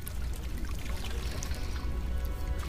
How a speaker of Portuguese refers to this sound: e vai se aproximando ainda mais, ficando nessa cascata de água, água crística. Deixa a água cair no seu corpo. Sinta o toque.